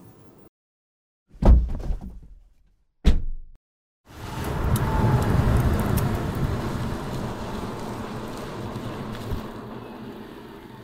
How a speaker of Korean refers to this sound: 이 소리는 지구를 지키고 내 지갑도 지키는 전기차에서 나는 소리입니다.